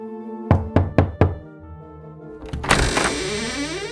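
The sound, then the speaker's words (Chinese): Four quick, evenly spaced knocks on a castle door, each sharp and solid, followed by a longer, rougher rattling sound as a steady musical tone hums underneath. “杰克就走到了城堡前，敲了敲门，一个老婆婆给他开了门。”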